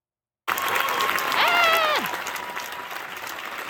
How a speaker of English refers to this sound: So I'm gonna try and ride the fader on here and like crank it when she's talking, and then like when there's applause, like cut it back a little bit.